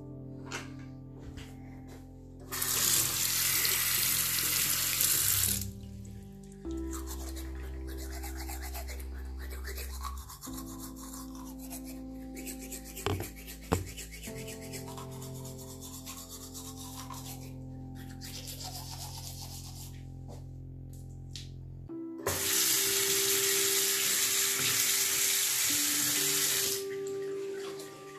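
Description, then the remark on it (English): A bathroom tap gushes loudly for a few seconds, then scratchy toothbrush scrubbing fills the middle stretch before the faucet runs again near the end. No one speaks. “Yes, go to your bathroom and start brushing your teeth.”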